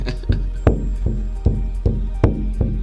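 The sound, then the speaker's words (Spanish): A drum with a natural leather hide head, currently somewhat soft, struck with steady, evenly spaced beats: about seven strikes with a deep resonant boom and short ringing decay, fairly loud with no voices. “Sí, normalmente se tiene que calentar con un poco de fuego para que se tense. Pero suena lindo.”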